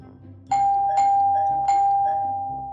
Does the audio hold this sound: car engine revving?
no